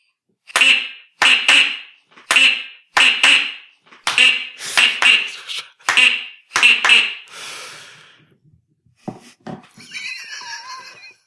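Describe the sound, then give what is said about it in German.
A duck call toy, a souvenir gift brought back from a holiday, is blown, giving about ten loud, nasal quacks in quick bursts, several in pairs, then fading into quieter rustling and scattered small noises. “Ist es wirklich eine Ententröte? Ja, ja, ist schon so eine Ententröte.”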